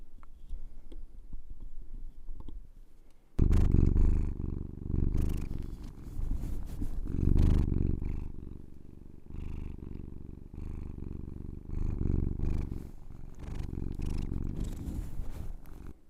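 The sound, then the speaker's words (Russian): A cat lying on a person's lap purrs in a loud, low, rhythmic rumble, with rustling and bumping as it rubs its face against the microphone. The first few seconds are nearly silent. “Еще на коленях у меня лежит кот, и он тоже издает звуки.”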